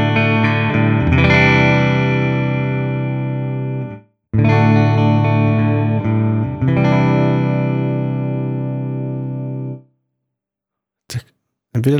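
Sustained, heavily processed electric guitar chords played through 2017 TC Electronic effects pedals ring out with rich harmonics, cut off at around four seconds, then struck again and held until near ten seconds, followed by brief faint noises.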